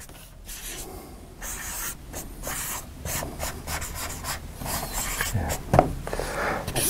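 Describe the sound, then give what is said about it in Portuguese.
A pen of a different colour scratches across paper in a series of short, uneven strokes, fairly quiet, with no one talking. “Quando você fecha esse buraco da arrogância e desenvolve a humildade estratégica, você entra no ciclo que nós chamamos, deixa eu pegar até uma caneta de outra cor aqui.”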